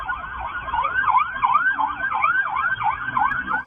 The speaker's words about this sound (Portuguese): Uma câmera de segurança flagrou a perseguição. Perceba que no centro da imagem há uma fila de carros num congestionamento. De repente, o som de sirenes.